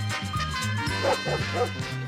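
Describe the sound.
A person imitates a dog, barking the answers in a dog version of The Price Is Right game show, letting out a quick run of loud barks and yips one after another for about two seconds with no talking.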